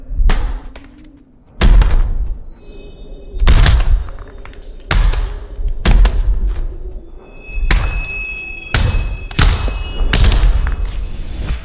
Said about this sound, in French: Ça donne du coup un résultat bien craquant et juteux, comme on pourrait l'imaginer quand on assène un violent coup de poing dans la mâchoire de son adversaire. Voici quelques extraits de bruitage issus des scènes de combat du film.